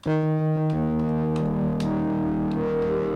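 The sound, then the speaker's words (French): A sustained, buzzing synth-like tone from a very cheap instrument, passed through reverb and distortion, shifting pitch a couple of times with harsh harmonics and smeared, echoing transients; loud, no voices. “Et je les, passe dans des reverbs et des, distos. Et en fait, c'est le même son et ça donne ça.”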